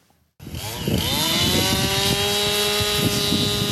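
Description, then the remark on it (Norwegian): A chainsaw starts up after a brief quiet moment and runs steadily, its engine whine rising in pitch and holding as it cuts snow, loud and continuous with no voices; Chinese snow artists carving large snow sculptures at a snow sculpture festival at Beitostølen in Valdres. “Med alt fra svære motorsager til små skeielignende reiskap laga ei gruppe kinesiske snøkunstnere enorme skulpturer i snø.”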